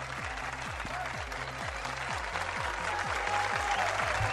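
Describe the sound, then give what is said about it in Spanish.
Steady applause from a crowd, the Friday applause of the MBS Noticias live broadcast on Friday 13 March 2020, dense and continuous for several seconds at a fairly loud level, with a rhythmic low thumping pattern running underneath. “Ahí está nuestro aplauso de viernes.”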